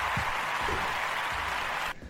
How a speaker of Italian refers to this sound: Ti faccio anche. Ti metto gli applausi. Grazie, grazie. Molto sentito.